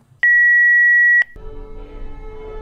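A single loud, steady electronic beep lasting about a second as play is pressed on an answering machine, followed by a muffled, noisy recorded message starting up.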